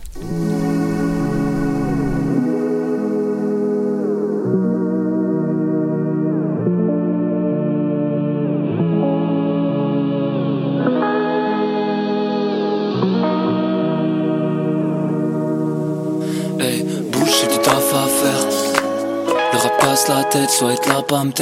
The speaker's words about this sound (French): On va retourner en musique à l'instant. On va aller écouter encore une fois du hip-hop, probablement une des chansons qui a le plus tourné sur nos ondes en 2018